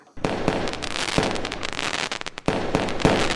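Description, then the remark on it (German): Fireworks go off in a dense, continuous barrage of sharp cracks and pops, with a few louder bangs standing out. The sound is loud, with a brief lull before it resumes. “Ein farbiges Feuerwerk am dunklen Himmel sieht meistens schön aus und im Kanton Glarus dürfte man morgen das eine oder andere sehen.”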